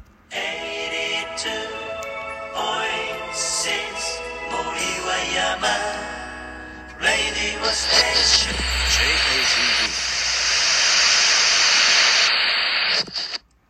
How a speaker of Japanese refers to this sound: 波を聞いてくれのオープニング BGM、これが効果音のとこに入れられるようになってます。これ面白いね。